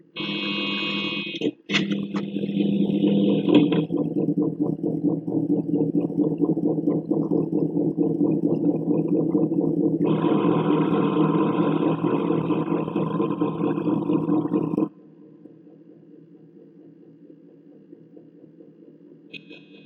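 An electronic, synthesized rock song intro: layered buzzing synth drones with a steady low hum and whining high tones, loud and sustained, then dropping to a quieter low drone near the end.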